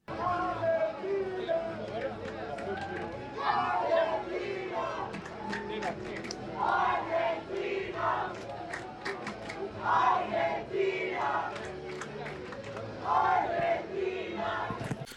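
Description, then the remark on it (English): A large crowd of Argentinian and French supporters shouts and chants in swelling waves, rival groups of voices cheering back and forth loudly in turn over a constant roar of babble, with sharp bursts punctuating the din. “we got some cheering back and forth at one point”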